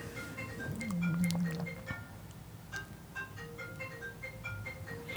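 A mobile phone's morning alarm ringtone plays a bright, repeating melody of short chiming notes in a steady rhythm, moderately loud, with a brief low murmur near the start.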